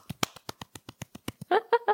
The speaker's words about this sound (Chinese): 我觉得应该值得给自己拍拍手。让我们来拍拍手。